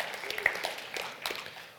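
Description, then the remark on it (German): An audience at a Christian sermon claps in a brief, scattered burst, many hands patting irregularly at a moderate level for under two seconds, with a few sharper claps standing out. “Ja, ihr könnt klatschen, wenn ihr wollt.”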